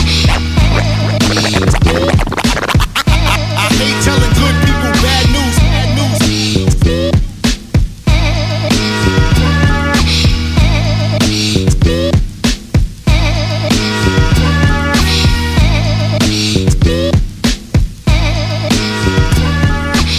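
A loud hip-hop instrumental with a steady beat and sustained musical tones, cut through by repeated sharp turntable scratches that sound up close. No one speaks.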